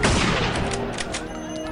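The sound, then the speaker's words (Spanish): A rapid burst of several gunshots fired at a priest cracks out loudly, the sharp reports overlapping into a rough, continuous volley with ringing echo, no voices heard. “Tras varios disparos, Toribio, de 27 años de edad y 5 de sacerdocio, perdió la vida en brazos de su hermana”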